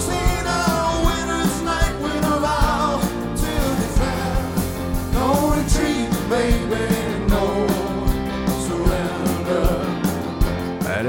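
A live cover band plays a rock song with a singer belting over steady drums and guitars, loud and continuous throughout, with a rough concert-recording feel.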